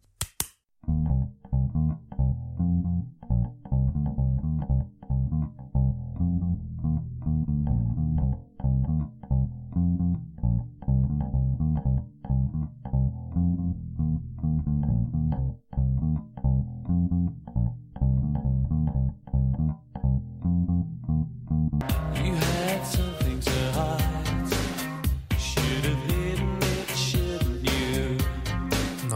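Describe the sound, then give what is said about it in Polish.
An isolated, pulsing bass line from a synth-pop song plays alone in a steady, repeating rhythm of low notes for about twenty seconds, then the full band bursts in, much brighter and fuller. “No i w poprzednim odcinku była już taka pierwsza linia basowa, pierwsza taka zagadka.”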